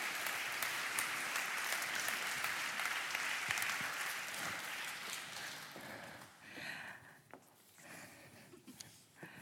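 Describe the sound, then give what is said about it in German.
An audience claps steadily in a dense wash of applause for about six seconds, welcoming guests onto the stage, then it thins into scattered individual claps before fading out; no one speaks. “Ihr dürft sie gerne mit einem Applaus begrüßen.”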